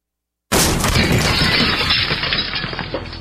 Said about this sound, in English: That's what it sounds like when a burglar kicks in the door of a dark house that looks like no one is home.